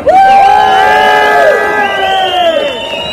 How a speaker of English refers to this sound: Give us a cheer!